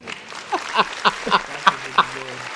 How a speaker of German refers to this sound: Ein herzliches Willkommen, Bro. Ein fetter Applaus für dich.